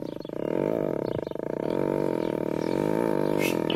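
A tiger gives a long, deep, rumbling roar, its low growl sustained and loud throughout, with no voices over it, in a TikTok video of a person petting the tiger.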